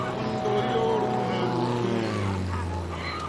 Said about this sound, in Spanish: ¿has visto una, una avioneta a estas horas? Qué raro por aquí.